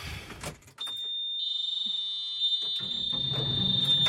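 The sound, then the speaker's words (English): A loader's warning alarm screams as a steady, piercing high-pitched tone that starts faintly, then holds loud and unbroken over low engine rumble, after a few clunks at the start. “I've got no idea why it was screaming, but I turned the engine off and on again, and it seems to have stopped.”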